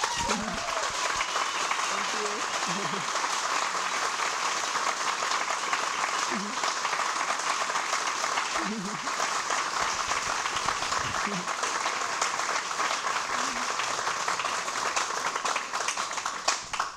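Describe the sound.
Sustained applause from an audience, a dense, steady wash of many hands clapping for about seventeen seconds, with faint voices and cheers scattered underneath.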